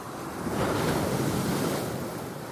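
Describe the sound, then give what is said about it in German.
Soft ocean waves wash in a steady, continuous hiss around a small island of two extinct volcanoes in the empty sea between Australia and South America, swelling gently partway through and then easing, with a light breeze and no voices, in warm weather. “Die Insel wirkt furchtbar verloren zwischen den sanften Wellen auf der unendlichen, stillen Wasseroberfläche.”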